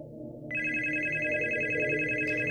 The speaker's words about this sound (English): Swann got a phone call at 3 a.m. from a mysterious Mr. Axelrod.